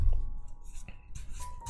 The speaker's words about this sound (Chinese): 来洗牌，抽一张牌。